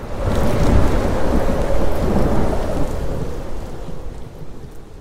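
Heavy rain pours down steadily while deep thunder rumbles underneath, loud at first and slowly easing off toward the end. No one speaks.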